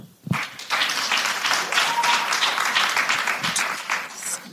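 An audience breaks into applause after a brief pause, a dense wash of many hands clapping at a steady level for several seconds with no talking over it, clapping once in answer to a call for the cat people in the audience.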